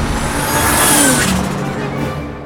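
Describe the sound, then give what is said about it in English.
An electric car with no driver approaches, its high electric whine sweeping up then easing over a loud, hissing rush of motion that fades slightly at the end. “Look, one of Solak's electric cars. But there's no driver?”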